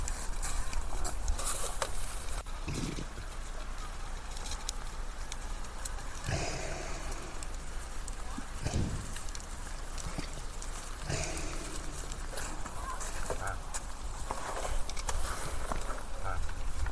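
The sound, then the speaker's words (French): Close, heavy animal breaths of a reindeer rasp at a slow, uneven pace over a steady outdoor hiss, while a reindeer-drawn sleigh patters and scrapes faintly in the distance. “Voilà, bah là je vous fais entendre euh, la respiration d'un renne qui est juste à côté de moi. Et au loin on entend eh bien, un traîneau qui est traîné par des rennes.”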